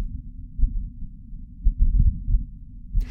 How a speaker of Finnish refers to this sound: Kuten alussa mainitsin, on tämä ääni Perseverance kulkiassa olevan mikrofonin tallentamaa, ja tässä on tosiaankin tuulta